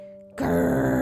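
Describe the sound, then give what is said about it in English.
A voice imitates an alligator growl, an alligator coming out of a cracked egg in a children's story: after a brief low hum, a single loud, rough, rumbling "grrr" bursts out and holds steady for under a second. “So what animal is that?”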